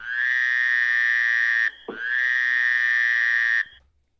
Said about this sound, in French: Et on finit avec peut-être mon préféré. Elle est là, la grenouille. Je vous le remets.